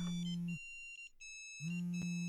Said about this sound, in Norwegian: Oi, en telefon.